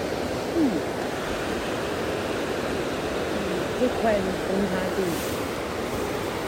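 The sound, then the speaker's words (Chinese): A fast, rushing stream beside a walking trail leading from a waterfall roars steadily and loudly throughout, a dense, unbroken wash of water noise, with brief faint traces of a voice surfacing under it. “真的，我现在还在那栋瀑布走出来的步道上，旁边的溪流很湍急，声音很大。”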